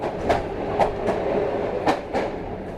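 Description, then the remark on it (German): A train travelling from Poland to Lithuania rolls steadily along the rails with a continuous low rumble, punctuated by sharp, regular clickety-clack beats from the wheels passing over track joints. “Es ist ein bisschen umständlich, mit dem Zug von Polen nach Litauen zu fahren.”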